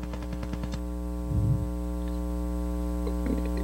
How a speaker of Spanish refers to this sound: Usted podría poner su micrófono en silencio un momento, a ver si yo sigo escuchando la interferencia.